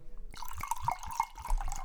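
Screw-cap Cabernet Sauvignon wine being poured into a whisky glass in Kamperland: a steady liquid stream with a ringing tone, broken by several soft glugs and splashes over under two seconds, with no talking.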